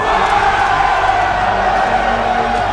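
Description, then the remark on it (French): A large crowd in Paris shouting and cheering with joy and relief as soldiers raise their rifle butts and refuse to fire, a dense, continuous roar of many voices that stays loud and steady throughout, with occasional whoops rising above the mass. “Finalement, dans un immense soulagement, des cris de joie fusent.”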